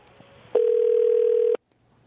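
A single steady telephone tone sounds loudly for about a second over faint background noise, then cuts off abruptly, as a radio host's call to a listener fails to connect.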